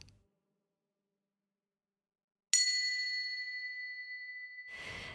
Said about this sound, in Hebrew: אז נתחיל עם הישמע צליל הפעמון ונסיים את המדיטציה גם עם אותו הצליל.